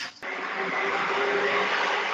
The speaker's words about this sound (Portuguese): E tá chovendo. E tem um ônibus passando. Ah, escutou daí?